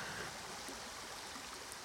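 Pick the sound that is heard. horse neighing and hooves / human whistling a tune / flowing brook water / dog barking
flowing brook water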